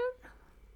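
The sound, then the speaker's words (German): A short, loud tonal cat cry right at the microphone, the cat pressing its head against the microphone, cut off within a fraction of a second and followed by quiet background noise. “Nein, Mausi, das. Nein. Nicht machen. Das ist nicht oh, sehr schön für die Leute, was? die dich hören.”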